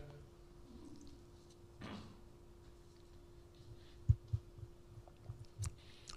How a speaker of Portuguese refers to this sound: Deixa eu tomar um pouquinho de água aqui, a boca está ficando seca.